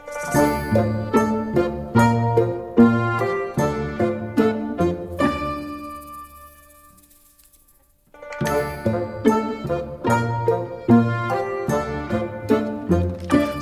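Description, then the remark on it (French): A brisk instrumental march, presented as a march for the play Le Dindon, plays with a steady, bouncy beat and bright ringing tones. Midway it stops on a long sustained chord that fades nearly to silence, then the march resumes. “pour être une marche du dindon, ça tient.”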